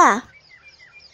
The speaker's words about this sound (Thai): นั่นเสียงนกนี่นะ